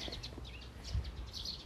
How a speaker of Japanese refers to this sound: めちゃくちゃ鳥が鳴いてるさあ登りましたどうよ小鳥すごいいっぱいいる 八戸んお鳥の鳴き声がお届けできたらそれで十分かなちょっとは春らしい音声、拾え 拾え